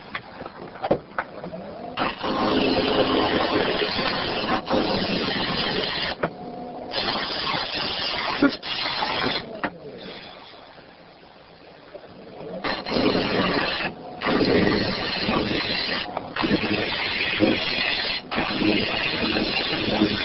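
A potter's wheel spinning during throwing work gives a steady motorized whir almost continuously, rising and dropping in bursts as the wheel speeds up and slows, with a brief quieter lull midway and faint scraping textures throughout.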